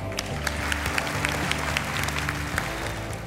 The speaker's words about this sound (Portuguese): Um forte aplauso para